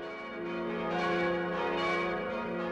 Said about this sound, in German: Das sind die Glocken von der Kirche in St. Engelmar. Klangvoll und kräftig tönen sie vom wuchtigen Turm über die Täler und Höhen des vorderen bayerischen Waldes.